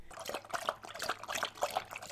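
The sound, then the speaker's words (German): A dog drinks, carrying water into its mouth with its tongue in a quick, steady rhythm of wet splashy slurps, fairly loud, with no voices. “Sie transportieren mit ihrer Zunge Wasser in ihr Maul und trinken so.”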